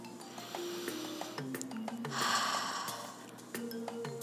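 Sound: deep breath in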